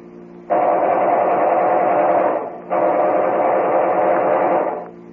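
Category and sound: sound effect, machine gun firing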